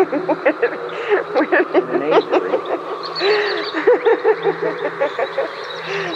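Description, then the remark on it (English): A busy chorus of bird calls, overlapping chirps, whistles and hooting notes that keep going without a break, fairly loud and close, like many caged birds calling at once. “Um, okay, we have um, to tell them that the birds was Austin's.”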